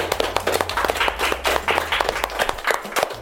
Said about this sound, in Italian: siamo sempre qua in diretta da Radio Sei Forte e gradirei eh, eh, un altro applauso perché oltre al couscous abbiamo un'altra ricetta molto importante. Vai con l'applauso, vai con l'applauso, fateci sentire.